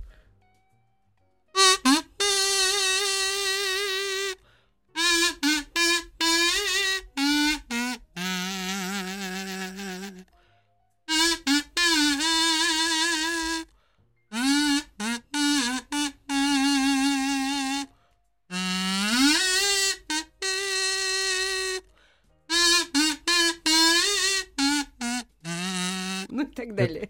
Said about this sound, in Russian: Эм, я сейчас вам э, покажу, как может звучать ветер.